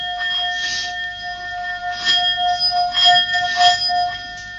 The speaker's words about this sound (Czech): Tak mě tam nejvíc zaujalo malá tibetská mísa, na kterou... Dej to tady trošku blíž ke kameře. Vlastně. Tady, tady je kamera. Jo. No? Na kterou klepnete a pak... Se to někdy povede, vět? Jo, už to hraje. Určitě slyšíte ten krásný tón.